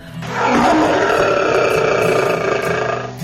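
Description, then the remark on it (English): A person imitates a lion's roar, a long, loud, sustained growling bellow lasting about three seconds, rising quickly and holding steady before trailing off, with no other sounds. “And all day long, all he did was roar at the top of his lungs. And when he roared, it sounded something like this.”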